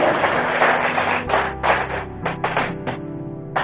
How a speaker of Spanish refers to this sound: Den un aplauso al Señor, tan amable, por favor.